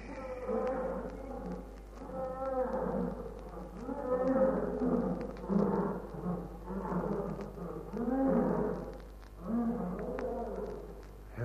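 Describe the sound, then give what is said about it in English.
Lions roar and growl in overlapping bursts for several seconds, deep and throaty, with each call swelling and fading in a steady, rolling rhythm, as a herd of lions comes to a river to drink. “At least we wouldn't be chewed to pieces by a herd of lions.”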